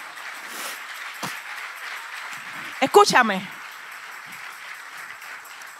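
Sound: audience applause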